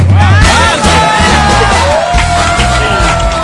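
A loud studio audience cheers and applauds a contestant who has just sung, with whoops and high shouts rising over a dense wash of clapping that stays steady throughout, a low rhythmic thump running underneath.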